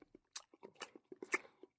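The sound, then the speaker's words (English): Crisp crunching of a carrot being bitten and chewed, about a dozen quick snaps in an irregular rhythm, with a louder crackling bite near the end and no talking. “My carrot is the only carrot in town. Munch, munch, munch.”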